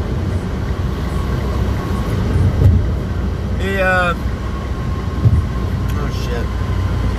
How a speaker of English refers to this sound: Traffic. Traffic, traffic, traffic.